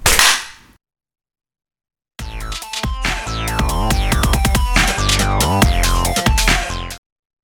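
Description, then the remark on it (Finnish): A short noisy burst, a pause, then a group of hands clapping together after a three-two-one countdown in a dense, loud, crackling flurry for about five seconds, sounding choppy with warbling digital distortion from being sent over Discord before cutting off abruptly. “Vih- no niin, läpyt. Kolme, kaksi, yksi.”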